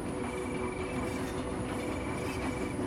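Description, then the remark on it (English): A steady, continuous rumble of a train rolling along the rails, with a low droning hum and faint high tonal whines, heard from inside at an even, unbroken level with no talking. “the wide meadows have passed by, and the train is entering a forest.”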